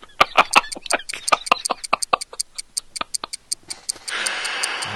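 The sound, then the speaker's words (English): The Doom clock ticks quickly and steadily in sharp clicks for several seconds, with no one talking, before a broad hiss of noise rises and the ticks fade beneath it. “what's that ticking I can hear”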